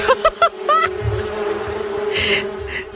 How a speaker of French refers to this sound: Là que je vois, ah oui, c'est ça, il y a des sons de guêpes.